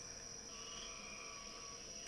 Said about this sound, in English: That's that kind of sheep sound, that mm-hmm. ba. Those are narrow-mouth toads. And it's got uh, upland chorus frogs and some um, gray tree frogs in there. And um, I hear a couple of uh, green frogs in there.